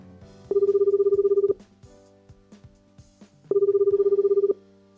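An outgoing phone call's ringback tone sounds twice, each ring lasting about a second with a steady warbling buzz, separated by a pause, clear and close with a faint low background.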